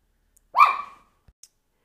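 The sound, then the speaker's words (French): A single sharp dog bark rings out, followed by a couple of faint clicks and otherwise silence. “Euh, désolée, mon chien j'ai puis il fallait que j'arrête mon enregistrement.”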